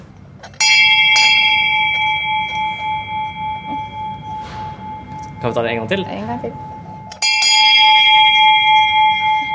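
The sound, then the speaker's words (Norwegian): A loud stock exchange opening bell is struck at nine in the morning to mark a company's first day of share trading. Its bright metallic ring sustains and slowly decays, then it is struck again after a pause; a person speaks briefly between the rings. “klokken ni for å markere at dette er første dagen at aksjen i vårt selskap handles på børs”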